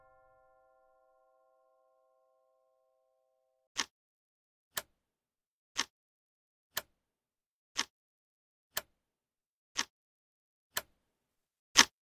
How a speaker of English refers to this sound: That is the sound of a time bomb.